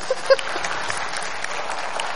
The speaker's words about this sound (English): So thank you. I'm trying to think if there's anything else I, I can say to get another applause out of you. This is really good.